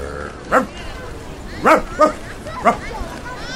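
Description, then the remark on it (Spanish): A man who works as a dog imitates a barking dog, giving four short, yelping barks at uneven intervals, clear over a faint background murmur. “Espera, espera que ladre un poquito.”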